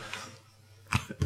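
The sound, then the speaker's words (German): A quick, fairly quiet sneeze near the end, a sharp breathy burst followed by a smaller second burst, with no talking around it. “Gesundheit”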